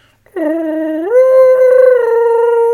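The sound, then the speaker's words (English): A voice imitates a small film creature's little singing: one sustained, tuneful, howl-like note that steps up in pitch partway through and holds, loud with no other sounds. “he hears Gizmo's little singing that he does it”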